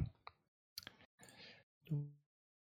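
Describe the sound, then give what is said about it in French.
Two power dice are rolled, clattering and clicking across a hard surface in a few short bursts, followed by a brief vocal sound at the end. “On va, lancer avec 2 dés de puissance.”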